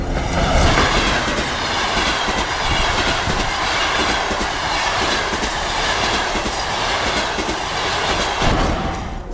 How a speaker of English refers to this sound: I bought a ticket and caught the first train out of town.